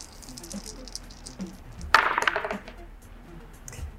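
Dice are rolled onto a hard surface, a quick burst of rattling clicks that settles within about half a second, fairly loud against a quiet background.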